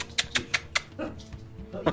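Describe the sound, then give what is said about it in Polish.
A dog named Molly, being let out of the room, makes a quick run of four sharp, evenly spaced clicks, like claws tapping a hard floor, then a softer scuffle and one more bright tap near the end. “Wypuszczę tylko psa.”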